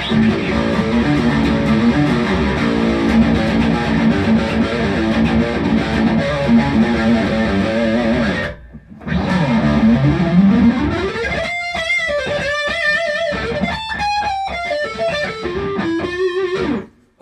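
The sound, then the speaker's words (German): Gritty, overdriven electric guitar through an amp set to a vintage sound with the master at 5: thick distorted chords ring out, then a brief gap gives way to bending lead notes and quick melodic runs, loud and without any talking. “das ist jetzt der Vintage Sound.”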